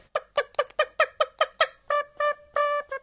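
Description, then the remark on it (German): A voice imitates a clucking chicken: a quick run of about eight sharp, harmonic clucks, then three longer drawn-out squawking notes, fairly loud with no other sounds. “Viele aus meiner Klasse sagen, dass ich das Huhn ganz gut nachmachen kann.”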